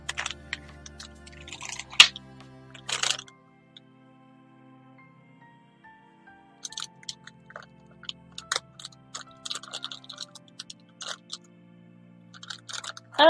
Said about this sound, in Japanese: あんか、出来上がる音がする。コーヒーの。